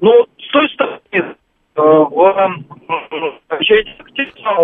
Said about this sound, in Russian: Послушайте, а, послушайте, вы пропадаете, вы можете поменять положение телефона? Вообще половина не слышно.